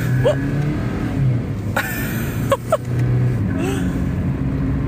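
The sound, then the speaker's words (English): A sports car engine accelerates as the driver barely taps the gas, a steady low rumble with a few brief rising whines, droning continuously from start to finish. “it is so fast. Oh my god. I'm like barely tapping the gas now.”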